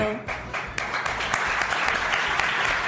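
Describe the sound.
A large crowd in a hall, on its feet, applauds loudly and continuously in a standing ovation, a dense wash of many hands clapping at once, sustained and enthusiastic, with faint voices mixed in.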